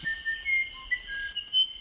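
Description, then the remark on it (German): A musician wren sings a series of clear, pure whistled notes at shifting pitches, using intervals such as octaves, fifths and fourths, fairly faint and spaced out, over a steady high insect-like buzz in the background. “Manche Flageolett-Zornkönige, die die Forscher beobachtet haben, sangen ihre Melodien sogar in bestimmten Tonarten.”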